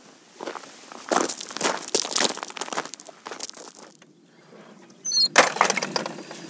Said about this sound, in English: Lovely little gate there coming through, and the paved way leading on, which is absolute magic